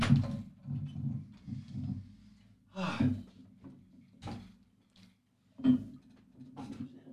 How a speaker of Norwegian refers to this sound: Jeg lukker opp døra litt, eller?